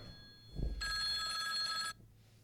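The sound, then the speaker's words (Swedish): A telephone bell rings loudly in one sustained burst of just over a second, bright and metallic, an incoming call to the call-in show Ring UP, preceded by a brief low thump and followed by quiet. “Ja så, det ringer, det oh, ringer.”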